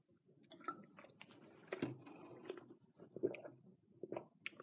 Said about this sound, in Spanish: Y ahora voy a beber un traguito de agua como les gusta a algunos también.